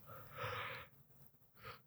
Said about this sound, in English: yeah, I'm just, I'm yawning uh, a lot.